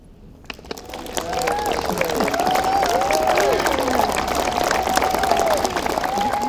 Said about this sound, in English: Another round of applause